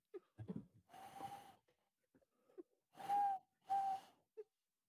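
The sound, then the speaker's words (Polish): A person imitates a tawny owl's hoot by blowing through cupped hands: three breathy, airy hoots with a faint whistling tone, fairly loud, separated by brief pauses and soft breaths. “Oj, rączki mi już nie są takie sprawne jak kiedyś. Kiedyś robiłem puszczyka.”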